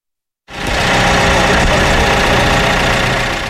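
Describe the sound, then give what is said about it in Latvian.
A snow clearing machine, brought to a square in Riga, idles steadily and loudly, a continuous rumbling engine drone with a slight knocking texture that starts abruptly after a moment of silence and holds for a few seconds. “Galvaspilsētas rāzlaukumā šodien atvestas jau sniega tīrīšanas mašīnas, kaut arī Rīgā no pirmā sniega nemiņas.”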